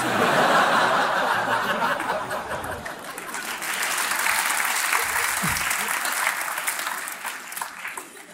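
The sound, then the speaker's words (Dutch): A crowd applauds loudly and steadily, a dense wash of clapping that fills the whole stretch, with some scattered laughter mixed in and a brief voice near the middle. “Nou, merci voor de applaus.”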